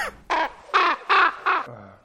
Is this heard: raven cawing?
yes